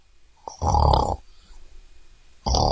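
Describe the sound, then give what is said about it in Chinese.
Two loud, rasping snores from a grandpa dozing, a long one followed by a quieter pause with soft breathing, then another snore starting at the end. Deep, rumbling and buzzy, with no talking. “有一天，他趁着爷爷打盹儿的功夫，”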